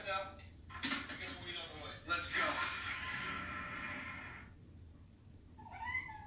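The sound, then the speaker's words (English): A cat wanting to play meows repeatedly, drawn-out and insistent calls overlapping with a person talking, followed by a shorter, higher meow near the end. “And my cat's wanting to play.”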